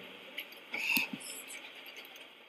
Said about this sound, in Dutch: Ehm, ik ga nu even iets printen.